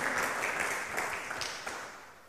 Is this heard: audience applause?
yes